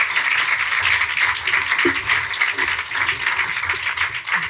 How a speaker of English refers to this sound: Ladies and gentlemen, Jeremy McLeod. Big round of applause.